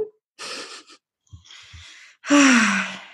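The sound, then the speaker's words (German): Deep breaths: an airy inhale, a shorter rasping draw, then a loud, forceful exhale with a slight voiced, sighing tone at the end. No speech. “Es ist einfach Atmen, weil du durch deinen Atem erstmal in deinen Körper kommst und wieder in den, in den Moment katapultiert wirst.”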